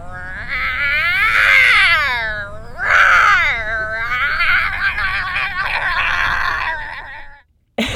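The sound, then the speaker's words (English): A person playing the lion's part imitates a lion's roar with loud, drawn-out, wavering vocal cries, in two or three long bursts that rise and fall in pitch, ending abruptly. “Let me play the lion too. I can roar.”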